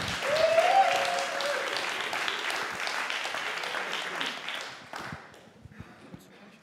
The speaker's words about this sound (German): Nämlich zum einen ist es, genau, gebt einfach einen fetten Applaus